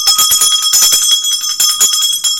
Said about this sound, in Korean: 오늘 종이 더 발랄합니다.